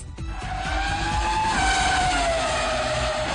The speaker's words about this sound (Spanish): Bajo el capó está el potente motor AMG V8 biturbo de 4 litros con cigüeñal plano. Entrega hasta 707 caballos de potencia y 800 newton metro de Torque, que son administrados por una caja secuencial de seis cambios diseñada para su uso en competencias.